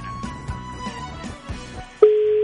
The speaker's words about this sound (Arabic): هذه ثاني رنة